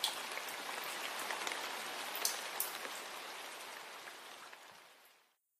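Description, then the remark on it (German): Steady rain pours down, a dense hiss of countless drops pattering on a hard surface, fairly loud throughout, with no voices, before cutting off near the end. “Zu sehen war jedoch nur eine große Blutlache, die langsam vom Regen verwischt wurde.”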